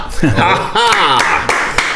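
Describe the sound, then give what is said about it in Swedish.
Applause from an audience welcoming politician David Lega as a guest at the Rådhuset on Gustav Adolfs torg, heard as a handful of sharp, scattered claps under voices and a bit of chuckling rather than a full, sustained ovation. “Gott med applåder innan man öppnar munnen.”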